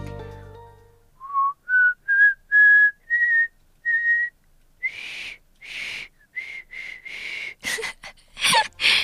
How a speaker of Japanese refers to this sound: 今スタッフさんからですねもう一回ねあの口笛をね挑戦してみてくださいと言われたので最後に挑戦したいと思いますいきますよ